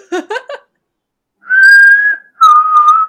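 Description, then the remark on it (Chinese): A short burst of speech gives way to two loud, steady mouth whistles, each a sustained tone held for under a second, the second slightly lower in pitch and a bit wavering. “刚刚那你 吹的话是吹得起来。 那你直接吹是？你直接吹还比较大声。”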